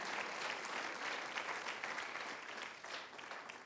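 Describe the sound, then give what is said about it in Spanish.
An audience bursts into sustained applause, a dense, steady wash of many hands clapping at an even level for a few seconds, with no voices rising above it. “Oh, alguien aplauda si entiende, entiende, entiende esa palabra.”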